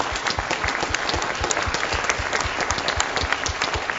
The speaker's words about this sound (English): Can you clap for those people that just raised their hand? That's pretty great.